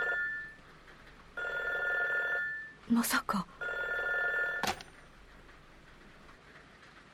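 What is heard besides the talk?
telephone ringing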